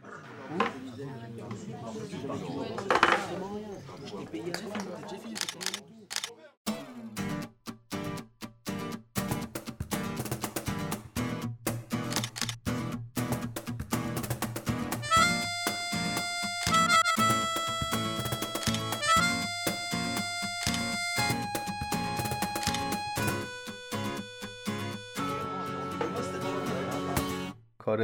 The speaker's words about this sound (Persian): اول از همه اینو باید بگم که این موزیکی که ابتدای پادکست شنیدید موزیک انحصاری پادکست ویدباب هستش هم موزیکی اول پادکست گوش میکنین هم موزیکی که آخر پادکست گوش میکنین شروع و پایان پادکست عکاسی ما هستش